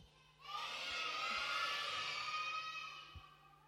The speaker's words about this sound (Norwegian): Men vi må rope en gang til. Er dere klar? Kan ikke høre oss da? Rope enda høyere. Én, to, tre.